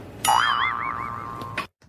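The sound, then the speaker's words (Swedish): A loud cartoon boing springs out, its pitch warbling up and down in quick wavy loops before settling into a steady tone and cutting off abruptly after about a second and a half, used as the sound illustration of a pig's curly tail growing out on Tommy Berggren. “Mm, det ljudet ni hörde där, boinget, det var ljudillustrationerna av knorren som växer ut på Tommy Berggren.”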